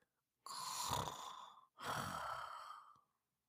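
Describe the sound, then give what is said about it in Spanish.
A voice imitates a little sheep sweetly snoring: two slow, soft, breathy snores, each a drawn-out rasping inhale or exhale, separated by a brief pause, fairly quiet. “La ovejita roncaba dulcemente.”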